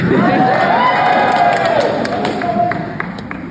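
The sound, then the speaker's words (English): A loud crowd cheers and applauds steadily for a performer after a performance, a dense wash of clapping and voices with occasional rising shouts and whoops throughout, never dropping off. “But again, let's give him another big round of applause.”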